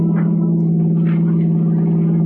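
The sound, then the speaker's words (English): The engine of a brand new car in a Nick Carter radio drama runs steadily with a continuous low, humming drone and no breaks, loud throughout, with some faint higher rattles drifting above it. “Ah, listen to that motor purr, Peggy.”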